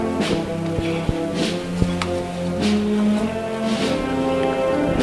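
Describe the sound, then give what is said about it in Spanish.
Rhythmic scraping shuffles of many bearers' feet dragging over the stone pavement outside the Magdalena parish church as a procession float walks straight ahead toward the church door, repeating about once a second, beneath sustained band music with steady held notes. “El racheo en el acerado de la Magdalena.”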